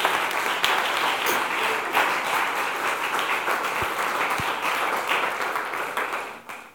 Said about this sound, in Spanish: Amén. Denle un aplauso. Venga.